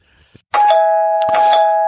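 A loud electronic doorbell rings twice after a moment of quiet, announcing a guest, each bright chime struck sharply and leaving a steady ringing tone that hangs in the air.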